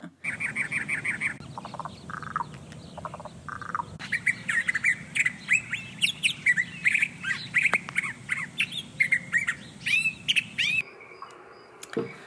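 Backyard bird song from the Naturescapes Backyard Birds recording: several birds chirp, trill and squawk in quick, overlapping bursts over a low steady background hum, continuous for the whole stretch, with no voices.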